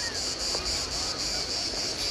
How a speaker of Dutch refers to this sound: En de krekels zijn ook weer aanwezig, zoals jullie horen.